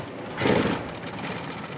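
An industrial sewing machine stitches a new piece of tarpaulin, running steadily with a dense mechanical whir and rapid stitching clatter that swells briefly louder before settling into an even hum, with no voices.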